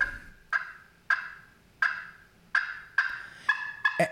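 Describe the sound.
Sharp, abrupt turkey cutting calls played on a Jargon Turntable pot call, about eight loud clucks spaced irregularly and bunching faster at the end, clear with no talking.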